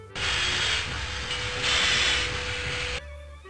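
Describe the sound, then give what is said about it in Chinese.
A train brake lets out a loud, steady hiss for about three seconds, swelling slightly partway through over a low rumble and a faint held tone, then cutting off abruptly. “还有一个会发出讨厌的嘶嘶声的刹车。”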